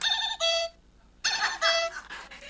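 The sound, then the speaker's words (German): A bright electronic alarm-clock melody plays alone: a short burst of ringing, tuneful notes, a brief silence, then a longer run of the same chirpy phrase at steady volume. “Dann, um Wecker angenehmer zu machen, da hat man ja heute schön mit Lingeltönen die, äh, wie soll ich sagen, die Melodien geben.”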